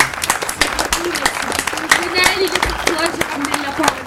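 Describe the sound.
A crowd applauds steadily, many hands clapping in a dense, sharp patter with a few cheers, voices chattering underneath throughout.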